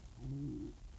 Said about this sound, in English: Do you hear that? That was my stomach.